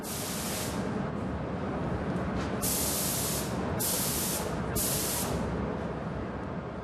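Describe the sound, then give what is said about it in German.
An airbrush spray gun applying paint onto glass hisses in several bursts, four bright, steady sprays with short gaps between them, over a constant low rumbling background noise, with no talking. “Der Umgang mit der Spritzpistole erfordert Fingerspitzengefühl und sehr viel Übung.”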